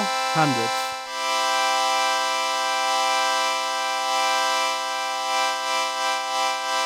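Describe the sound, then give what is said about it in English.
A synthesizer tone with its sustain set to 0 plays a short, quickly fading note, then with sustain at 100 a bright buzzy note holds steady and loud for several seconds with a slight wavering pulse. No talking. “So now the sustain is at 0 and now it's at 100.”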